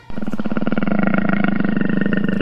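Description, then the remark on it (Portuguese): A jaguar roars in one loud, sustained burst that starts abruptly and holds for over two seconds, a low, rough growl with a rapid rasping pulse and no voices. “Todos os animais, você quer dizer onça também?”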